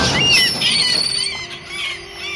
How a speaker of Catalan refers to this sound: Gràcies a aquella gavina furiosa. Però què fa? Fuig!